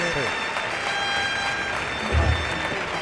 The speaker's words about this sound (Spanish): el público quiere que salude primero. está aplaudiendo la puerta la gente.